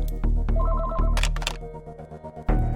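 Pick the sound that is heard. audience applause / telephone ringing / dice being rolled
telephone ringing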